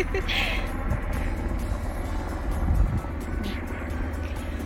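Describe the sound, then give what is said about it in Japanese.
A Japan Maritime Self-Defense Force helicopter passes overhead near the uninhabited island of Okinoshima off Tateyama, Minami-Boso, its loud, steady low rotor rumble filling the scene and swelling slightly near the end before easing off. “そしてあの例によって例のごとくですねえーと、上空を海上自衛隊のヘリコプターが通過しております”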